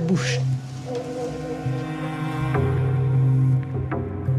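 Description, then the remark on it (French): A steady, droning buzz with a strong low hum and layered harmonics holds throughout: a looped recording of bees played from a computer through a loudspeaker moved around a bush to imitate bees, with a brief hiss near the start and faint clicks. “Mais quand elle diffuse un son d'abeille bouclé à l'ordinateur, je joue le son avec un haut-parleur imitant le mouvement des abeilles autour du buisson.”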